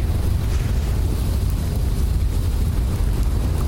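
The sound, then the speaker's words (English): Steady, loud wind roars across the microphone with a deep low rumble of sea surf; the noise is continuous with no voices. “Ah, the sea.”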